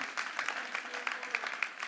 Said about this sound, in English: You may be, someone wanted to clap with me.